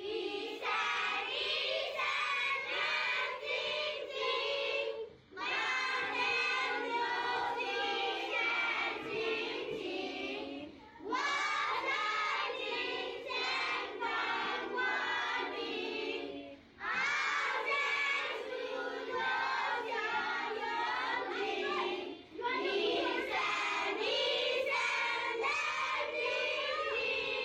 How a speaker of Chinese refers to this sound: 他们唱小星星的影片， 好啊，好啊，好啊，太棒了！大家可以听到小孩子唱歌的声音。